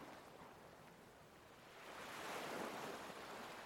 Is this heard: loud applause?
no